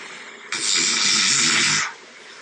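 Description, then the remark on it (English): A single loud, rasping snore on one drawn-in breath during sleep, lasting just over a second, from a recording of a night with a snore score of 55, against a faint hiss with no one talking. “My snore score was 91. Most people are at 25, so that was like a really bad day. Then Monday was 55. I'll play a little excerpt from that.”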